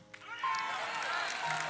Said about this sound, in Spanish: Un aplauso.